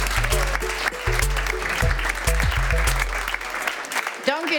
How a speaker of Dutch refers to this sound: En voor de dames natuurlijk, applaus.